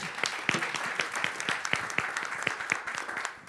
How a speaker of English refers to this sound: So I think this is an awesome end of our weekend celebration of our 25th anniversary party, would you say? Yeah, we can clap to that.